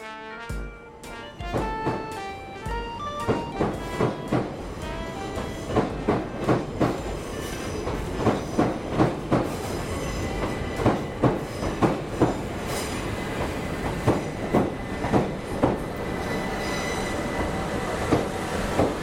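A train rolls past a station platform, its wheels beating out a steady clickety-clack with sharp, regular rhythmic thumps over a loud, continuous rumble and some high metallic squeal. No one speaks.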